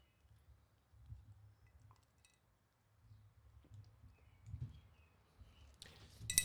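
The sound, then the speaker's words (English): A quick bright clink of glasses raised in a toast with whiskey cocktails near the end, brief and ringing, after several seconds of low muffled rumble and shuffling. “I'm gonna uh, I'm gonna cheers this. Cheers.”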